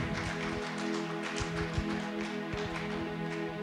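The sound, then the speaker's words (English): A crowd applauds steadily, a dense patter of many hands clapping throughout, with a low steady hum underneath and no talking; a quick round of applause for a pastor called up to the front. “Give him a quick round of applause.”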